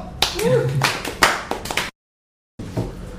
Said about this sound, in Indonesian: Tepuk tangan dong.